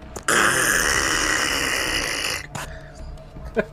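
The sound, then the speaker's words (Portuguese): A person voices a long, strained creaking growl from the throat, sustained for about two seconds, then trails off into a few short grunting sputters, imitating the sound of a neck turning 360 degrees. “É, isso é o barulho do meu pescoço virando 360.”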